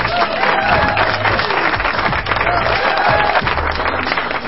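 A crowd claps steadily and loudly throughout, a dense wash of many hands with scattered cheers mixed in and no pause in the applause.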